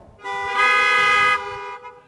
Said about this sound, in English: Now, if that was a message of hope, honk your horn. If that was a message of gloom and despair, honk your horn.